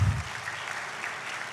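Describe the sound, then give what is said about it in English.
An audience applauds, a steady wash of many hands clapping at a moderate level, with a brief low thump at the very start and no talking over it. “Now, why are you clapping your hands?”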